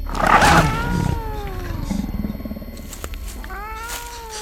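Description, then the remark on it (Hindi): A large blue-eyed cat leaps from a tree to pounce on a person in a jungle area in the evening, letting out a loud, harsh snarl, then a long, wavering yowl that slides downward, followed by a second, shorter yowl. No one speaks. “उसने ये बात बोली ही थी कि तभी पेड़ से एक बड़ी सी बिल्ली मेरे ऊपर बुरी तरह झपटी और अगर मैं पीछे ना हटता तो मुझे घायल कर चुकी होती”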